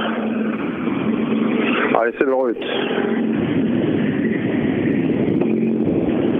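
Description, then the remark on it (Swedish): A green rally car speeds past on a rally stage, its engine roaring steadily and loudly throughout, a dense continuous drone, while a man speaks briefly over it partway through. “Här kommer den gröna raketen.”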